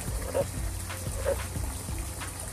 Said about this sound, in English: That's a frog croaking in the background.